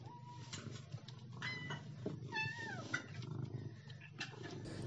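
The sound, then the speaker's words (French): The pet cats Jules Deleuze and Michel Foucault meow insistently as they are given food, their high, wavering cries overlapping one after another over a low background hum, with no one talking. “Et quand on leur donne à manger, ils crient beaucoup et ils font beaucoup de ronron.”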